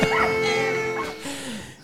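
A dog barks and then lets out a drawn-out, rising whine, loud, with no one talking over it.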